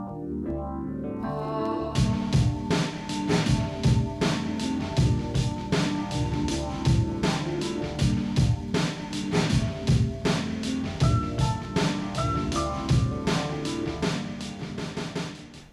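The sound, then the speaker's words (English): A short tonal intro gives way after a couple of seconds to a steady, loud looped beat of a sample-based track with dense layered instruments and looped, processed vocal samples riding over a repeating groove. “I think just like the first kind of you know, like right at 45 seconds in, when the when the vocals kind of come in and you get that basic beat built up.”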